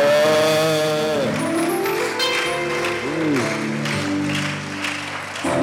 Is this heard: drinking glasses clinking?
no